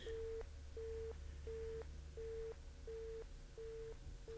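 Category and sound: signal or alarm, telephone busy tone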